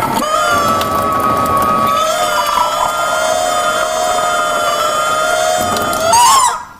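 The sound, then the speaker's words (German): A novelty water tap lets out a loud, sustained squealing chicken-like cry that wavers and shifts pitch midway, ending in a sharp rising squawk, with water hissing underneath and no talking. “Wollt ihr mal hören, wie mein Wasserhuhn klingt? Aber ja. Warte, ich dreh mal auf.”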